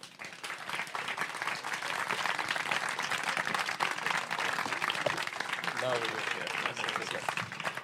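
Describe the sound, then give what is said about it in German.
An audience applauds steadily to welcome journalist Can Dündar, a dense wash of many hands clapping at an even, loud level for several seconds, with a few voices briefly audible underneath near the end. “Begrüßen Sie bitte ganz herzlich mit mir Can Dündar.”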